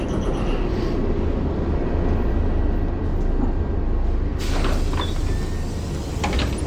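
A city bus, fleet number 5606, licence plate ET550GC, rumbles loudly and steadily. Partway through, a bright hissing burst cuts in, like pneumatic sliding doors working, over the constant engine drone.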